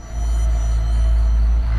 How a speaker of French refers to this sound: La voiture roule au pas encore un instant, puis poursuit sa route et disparaît dans la descente vers Benicia.